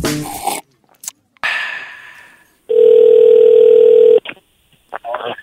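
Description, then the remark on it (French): A single loud, steady ringback tone sounds for about a second and a half as an outgoing phone call rings, with brief bits of speech and noise before and after. “Puis comme euh, je dis, ben, on va essayer d'appeler euh,”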